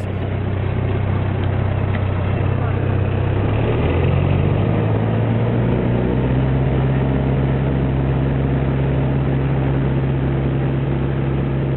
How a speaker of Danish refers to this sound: Og øh, nu skal vi høre øh, lidt om hans øh, farfulde flyvefærd over Nordsøen, som foregår i en... Øh, The Havilland Moth. Hvordan det lyder, når man tager øh, øh, afsted fra en The Havilland Hornet Moth.